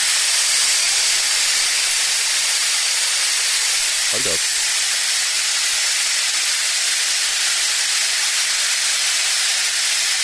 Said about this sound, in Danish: er lige en tank, der skal tømmes for en eller anden gas, lyder det sådan.